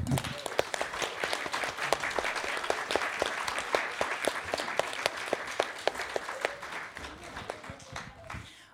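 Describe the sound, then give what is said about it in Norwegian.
Sustained applause from a group of people for an astronaut having been to space, dense overlapping claps forming a steady wash of sound that holds for several seconds before gradually thinning and fading out at the end. “Og fram til da så kan vi i hvert fall klappe for at du har vært der nå.”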